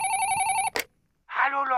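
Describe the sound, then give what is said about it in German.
A telephone rings with a steady, bright electronic tone for most of a second, cut off by a sharp click; after a short silence, someone starts talking. “Ah, vielleicht ist er das ja schon.”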